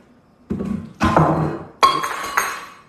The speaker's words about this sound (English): Whoops, that was my coffee cup. It was a thermos, durable.